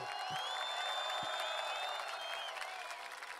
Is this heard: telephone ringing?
no